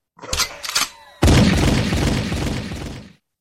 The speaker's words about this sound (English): Gunshot, slick.